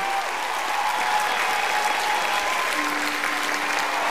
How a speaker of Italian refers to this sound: un grande, grandissimo applauso al nostro Anthony Beat